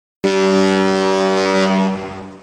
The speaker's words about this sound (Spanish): Poco después, todos los tripulantes pueden escuchar la bocina del barco,